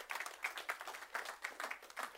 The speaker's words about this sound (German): Halleluja, ja, klatscht mal gescheit.